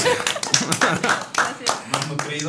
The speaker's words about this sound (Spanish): Gracias. Un aplauso. Un aplauso, un aplauso.